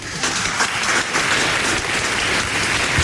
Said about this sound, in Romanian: Încă o dată aplauze pentru invitații noștri de ieri.